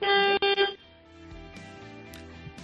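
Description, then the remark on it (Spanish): A car horn honks three short toots in quick succession, loud, the first slightly longer, followed by a quieter low rumble of background noise. The horn is being sounded to test how the car sounds. “Oye, vamos a darle tres toquecitos al Clash a ver cómo suena tu coche, a ver si se oye bien.”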